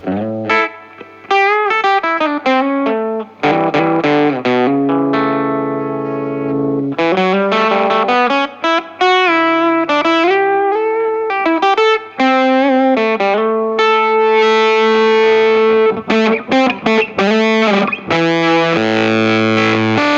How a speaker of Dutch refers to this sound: je leert beter omgaan met de gitaar zelf of zo